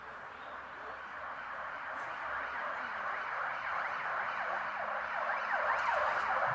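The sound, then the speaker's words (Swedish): A police siren wails in steady, repeating up-and-down sweeps, growing slightly louder as it approaches, with no voices over it. “Hallå, det kom polisen.”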